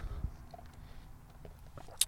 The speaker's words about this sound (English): Oh God! Take a sip of my coffee.